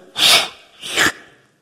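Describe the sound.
A voice imitates two quick, breathy puffs of air blown sharply into a baby's face, each a short hissing whoosh with a brief pause between them, fairly loud with no talking.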